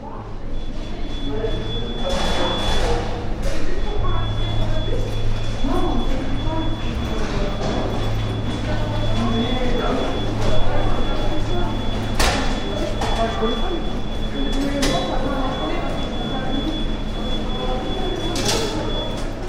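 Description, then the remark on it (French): Busy underground metro station ambience: a low rumbling train with a steady high whine, occasional sharp clanks and door thuds, and indistinct voices murmuring throughout the echoing space. “Comment pourrais-tu qualifier ou décrire l'ambiance ou l'acoustique de la station de métro Alors l'acoustique de la station de métro, euh, plutôt déplorable.”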